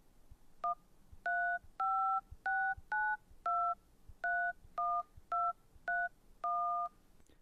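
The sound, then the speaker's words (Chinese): A telephone number being dialed to call a father who is working late: eleven crisp touch-tone beeps in a steady, slightly uneven rhythm, each a clear two-pitch electronic tone, heard alone with no talking. “你爸爸这么晚还没有回来，你打个电话问问他。”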